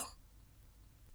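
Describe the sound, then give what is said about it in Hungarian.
A voice imitates one quick, sharp gasp, a person taking a big breath after running out of air while talking, a breathy intake right at the start, followed by near silence with only faint low background noise. “Szavai egymásba kapaszkodtak, mint a pitypang fűzér, mikor pedig kifogyott a levegője, elhallgatott és nagy lélegzetet vett, ami így hangzott.”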